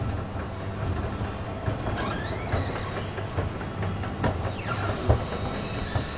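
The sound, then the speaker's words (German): A department store escalator running downward to the office supplies and gifts department hums and rumbles steadily, with rhythmic mechanical clatter and a couple of rising metallic squeals, fairly loud throughout, with no voices. “während er schon auf der Rolltreppe steht und in die Bürowaren- und Geschenkabteilung hinabfährt.”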